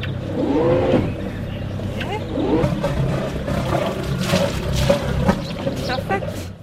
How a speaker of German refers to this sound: Okay. Ein bisschen nach rechts mit dem Strahlruder.